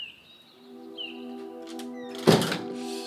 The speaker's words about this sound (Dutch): Hij doet voorzichtig de voordeur open en steekt zijn hoofd naar buiten.